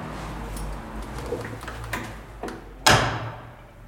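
A heavy security door at a police brigade's offices in the Bastion 14 building in Paris being handled: a few soft clicks and latch knocks, then a loud metallic clunk as it shuts, its ring fading. No one speaks.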